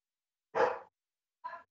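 A dog barks twice, first a full, fairly loud bark and then a shorter, softer one about a second later, with silence around them.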